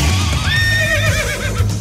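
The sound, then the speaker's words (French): A horse lets out one loud whinny that starts high and trembles downward in a quick, shaky vibrato, lasting nearly two seconds over a low steady rumble. “Et le cheval”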